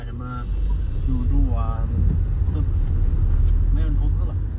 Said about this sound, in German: Fahrt mit dem Auto durch Tianjin-Binhai. Eine beeindruckende Skyline etwa 80 Kilometer östlich der Kernstadt von Tianjin.